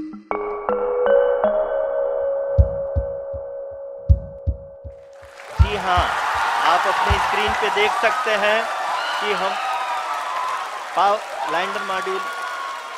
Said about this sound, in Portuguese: Os aplausos são um misto de festejo e de alívio. À hora programada, a Chandrayaan 3 pousou no Polo Sul da Lua depois de uma descida, ora rápida, ora lenta, para garantir a segurança do impacto.